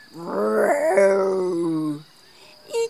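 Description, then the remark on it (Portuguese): A voice imitates the female dog Alabama baring her teeth and roaring and growling in one loud, drawn-out snarl of about two seconds, wavering in pitch, followed by a short pause and a brief clipped sound. “Não teve medo, caminhou em frente, ficou olhando nos olhos de Calvin, mostrou os dentes, fez um rugido”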